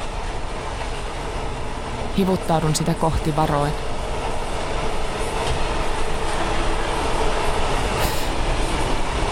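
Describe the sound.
A runaway train rattles steadily along the rails in a loud, continuous rumble, with a man's voice speaking briefly over it early on and a sharp metallic clank near the end.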